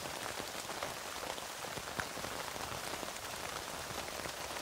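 Steady rain patters onto a tent, a dense hiss of countless drops with scattered sharper ticks, even throughout with no voices.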